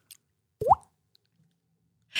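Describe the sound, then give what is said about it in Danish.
A voice imitates a fly falling into a puddle: one wet mouth plop with a quick upward pitch, heard alone, then a short breathy hiss at the end. “Og så kan jeg, at fluen falder ned i en vandpyt.”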